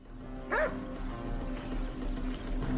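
A well-trained canine unit dog tracking a fugitive picks up a scent and gives one sharp bark, then a fainter second bark near the end, over a steady low background hum.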